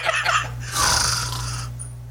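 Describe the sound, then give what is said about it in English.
A sleeping boy's single drawn-out snore with a voiced, word-like start that sounds like the words "his parents", trailing into a long airy rasp over a steady low hum. “the boy sleeping and his snores turned into his parents instead of regular snores.”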